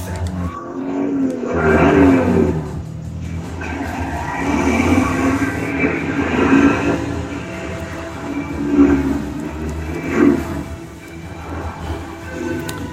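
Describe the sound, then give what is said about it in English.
A loud motorcycle engine roars through a chase scene, a dense continuous rumble that surges and swells repeatedly, layered with busy action noise throughout. “Or the motorcycle. Womp doom.”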